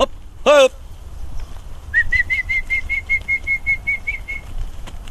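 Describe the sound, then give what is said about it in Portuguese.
A falcon named Tição takes off from a glove with a quick, steady run of about a dozen wingbeats, each a short whistling pulse, after a brief sharp call at the start; it flies a few metres, circles twice in the air and lands. “Um voo curto, o Falcão percorreu alguns metros, deu duas voltas no ar e aterrou.”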